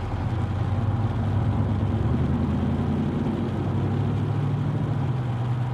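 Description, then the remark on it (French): Steady low rumble of a car engine and road noise, as if heard from inside a car cruising at constant speed along a country road at night with full-beam headlights, continuous and moderately loud with no voices. “Abel et Rosalie rentrent en voiture d'une soirée entre amis. Sur ces routes de campagne, ils avancent plein phare”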